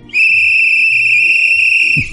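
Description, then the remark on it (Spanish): A man gives one long, shrill whistle as a human traffic warning signal used alongside early traffic lights, a single steady high note held for nearly two seconds, loud against a faint low rumble, ending with a short thump. “Claro, que tenía a un señor silbando, pues ¿para qué quieres el invento este de las lucecitas?”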